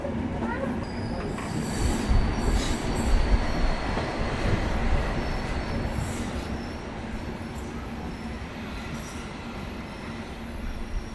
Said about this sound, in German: Das sind die Trilex-Züge der Eisenbahngesellschaft Länderbahn. Und das Tri im Namen steht für drei, weil die Züge eben im Dreiländereck Polen, Deutschland, Tschechien unterwegs sind.